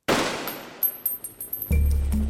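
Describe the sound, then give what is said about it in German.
A rapid series of gunshots, several sharp, loud cracks in quick, uneven succession, ending in a heavy low rumbling burst, as a sergeant fires eight or nine shots during an execution carried out without trial. “Er braucht acht oder neun Schüsse, bis er Che Guevara schließlich ins Herz trifft.”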